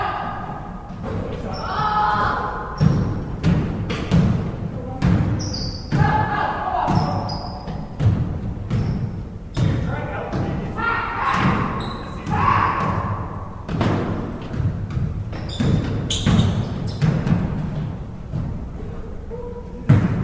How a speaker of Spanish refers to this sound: Bien, el siguiente audio es el sonido ambiente de un partido de básquet.